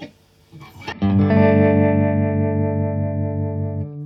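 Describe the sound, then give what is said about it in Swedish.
A brief scratchy strum, then a sustained electric guitar chord rings out through an effects pedal that is a copy of a Barefoot pedal, thick and distorted with a slight warble, holding steady for about three seconds before cutting off. No one speaks. “Ja, den låter kopian då från Barefoot här.”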